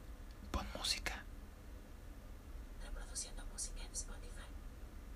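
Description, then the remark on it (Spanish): A soft, breathy whisper from an Alexa smart speaker answers a request to play music very quietly, in a few brief hissing bursts, faint against a low hum. “Ahí ya le pedí que pusiera música y lo dijo muy bajito.”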